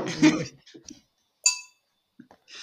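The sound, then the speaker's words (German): Two glasses, one a wine glass, are struck together once in a toast, a bright ring that fades over a fraction of a second, following brief voices and rustling, with more faint rustle afterward. “Du hast vor allen Dingen zwei Gläser, die du aneinander geschlagen hast.”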